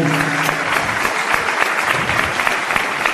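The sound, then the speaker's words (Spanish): Steady audience applause fills the whole stretch, many hands clapping in a dense, continuous patter at a fairly loud, even level, with no voices standing out. “Y quisiera también pedir, por favor, una, un aplauso y un agradecimiento para también mis compañeros que han conducido conmigo estos años el programa.”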